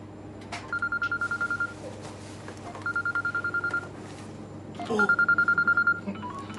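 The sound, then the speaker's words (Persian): A telephone ringing tone sounds in three evenly spaced bursts of rapid, trilling beeps, each about a second long, over a steady low hum with a few soft clicks and no talking, as a call is placed to the speaker's father. “من تلفن به پاپا اجازهتون میزنم”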